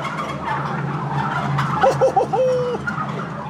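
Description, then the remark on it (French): Turkeys let out a quick, rattling gobble partway through, a warbling burst over a steady low rumble like an idling vehicle, with no one talking. “On va se le dire, c'est vraiment drôle le son des dindons.”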